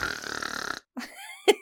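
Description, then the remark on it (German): A person imitates an animal snuffling as it tries to sniff its way through a door: a long, breathy rasping snort, then a pause and a few short throaty, gurgling vocal sounds ending in a brief burst. “Ach, falls du übrigens gerade solche Schnaufe hörst, der Kleine versucht sich gerade durch die Tür zu schnüffeln.”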